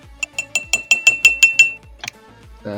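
clinking glass

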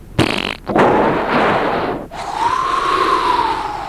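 fart sound effect

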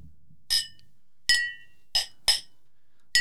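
glasses clinking

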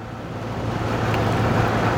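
car driving on highway

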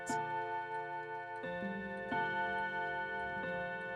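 clock striking the hour

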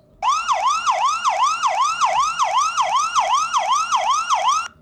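police sirens

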